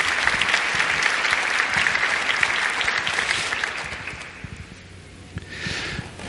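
A crowd applauds steadily, a dense wash of many hands clapping that holds strong, then gradually thins and fades toward the end with a brief swell at the close.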